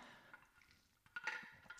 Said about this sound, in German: Nimm schnell einen Schluck Wasser.